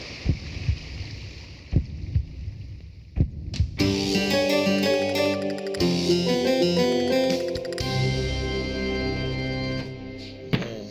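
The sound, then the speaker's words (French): A few deep, muffled thumps pulse like a heartbeat over a low rumble for several seconds, then a loud, sustained droning tone with rich harmonics swells up and mostly drowns them out. “Ah, j'entends clairement ses battements.”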